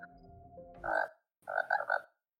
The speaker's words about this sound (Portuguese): É um sapo. É, cara. é o meu celular, ela tá levando mandando mensagem.